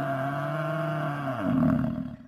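angry lion roaring

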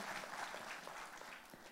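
audience applauding

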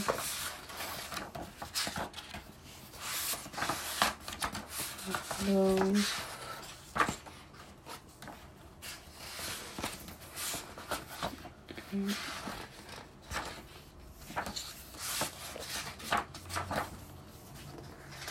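flipping through book pages

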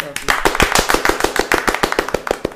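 hand clapping

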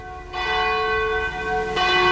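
cathedral church bell ringing

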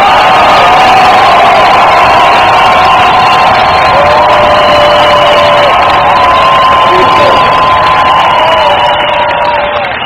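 audience applause and cheering

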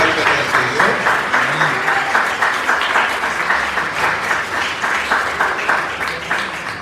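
audience clapping

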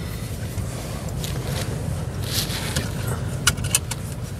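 inside a car

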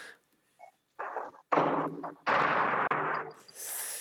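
footsteps climbing stairs

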